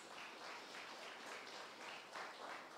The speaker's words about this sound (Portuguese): Dê mais um aplauso ao Senhor Jesus.